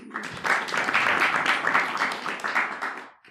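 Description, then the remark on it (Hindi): An audience claps steadily in a burst of applause lasting a few seconds, dense, then tapering off at the end. “ताली बजाओ सब इनके लिए”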